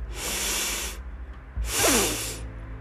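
A breath drawn in over two counts as a breathing-exercise demonstration: two separate airy, hissing pulls of about a second each, divided by a short pause, fairly loud, with no talking.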